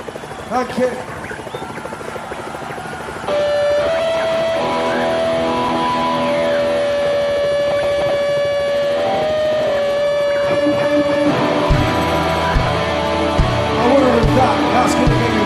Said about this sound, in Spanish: el concierto sigue y suena …